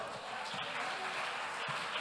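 A crowd applauds in response to a call to applaud, with dense, rapid clapping that stays at an even, fairly loud level for the full two seconds and does not build or fade.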